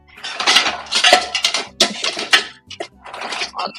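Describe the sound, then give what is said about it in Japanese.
Dishes clatter and clink in bursts as they are stacked into a dishwasher before running it, fairly loud, with irregular knocks of plates and cutlery and short pauses between. “ちょっとすいません。食洗機回しちゃいますね。”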